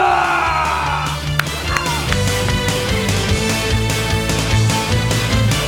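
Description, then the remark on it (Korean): A dense, steady roar of crowd noise fills the whole stretch, cheering and clapping blended into a loud wash with a few brief whoops rising above it. The cheering celebrates Faker's fourth League of Legends World Championship title. “통산 네 번째 롤드컵 정상에 오른 대한민국 여러분들의 뜨거운 응원의 박수와 문자 5초간 발사!”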